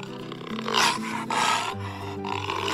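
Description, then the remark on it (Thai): A jaguar that has entered a house roars angrily, three loud, rasping snarls in quick succession, harsh with a deep rumbling undertone and no voices. “เมื่อเสือจากัวเข้ามาในบ้าน เขาเห็นสล็อตกำลังนอนป่วยบนเตียงเขารู้ว่าวันนี้จะไม่ได้อาหารคืนแน่ ๆ เขาจึงคำรามด้วยความโกรธ”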